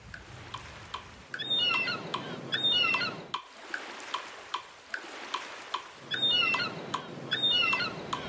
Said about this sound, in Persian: این صدا رو میشنوین؟ صدای برخورد موج با ساحله نه؟ حالا بیاین مدت زمان و تعداد صدای انباج رو نظم بدیم ببینیم چه شکلی میشه ما میتونیم اونا رو به موجای دوتایی تقسیم کنیم و روی موج دوم دو بار صدای مرغ دریایی بذاریم